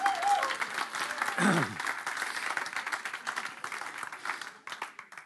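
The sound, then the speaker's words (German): Dense applause from an audience for a man seated among them, a steady wash of many hands clapping that gradually thins toward the end, with a brief voice-like sweep near the start. “Das ist der gute Mann, der zu einem Applaus hast du auch verdient.”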